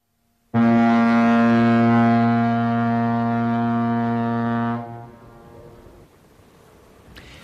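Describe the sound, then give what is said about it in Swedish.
The horn of the steamboat Oihonna, heading west toward Stockholm, gives one long, deep, steady blast lasting about four seconds, rich with stacked harmonics, then cuts off, leaving a low rumble of engine or water noise. “Toves första stora utlandsäventyr börjar på ångbåten Oihonna som tuffar västerut mot Stockholm.”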